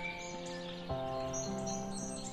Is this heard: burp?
no